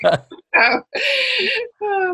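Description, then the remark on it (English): A quick, sharp sneeze bursts out at the start, followed by a few short voiced sounds and people talking. “bless you.”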